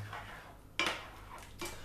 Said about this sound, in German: unserem Pfannenwender reingehen und einmal durchrühren.